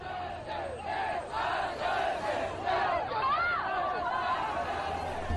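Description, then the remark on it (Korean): A large, agitated crowd of people shouts and yells together in a sustained roar of many overlapping voices, loud and continuous, with rising cries of anger breaking through the din, angry over whether Bush apologized. “아휴, 시작했다. 난리네 난리.”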